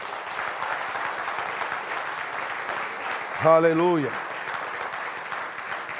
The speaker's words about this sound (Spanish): Pero nosotros no somos esclavos, nosotros somos libres en Cristo. Voy a darle el aplauso a Dios si tú eres libre.